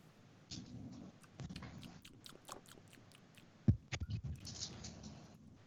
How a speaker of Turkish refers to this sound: Neye tanık oluyorum ben şu an? Ağzını şapırdatıyor